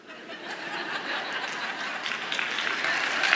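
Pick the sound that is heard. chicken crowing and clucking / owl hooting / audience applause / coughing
audience applause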